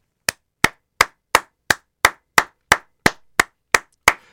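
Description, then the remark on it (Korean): Steady applause made of twelve sharp, evenly spaced claps in a brisk, regular rhythm, each crisp and loud with a quick decay and clean silence between, and no voices. “그나저나 55세신데 와 이렇게 풋살 경기를 한다는 건 여러분 자 다 같이 박수”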